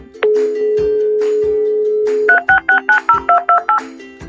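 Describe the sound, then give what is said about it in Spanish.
A dial-up modem connecting to the internet: a steady dial tone hums for about two seconds, then a quick run of eight loud touch-tone dialing beeps follows, with no one talking. “estaba estar esperando a ver a qué hora se conectaba.”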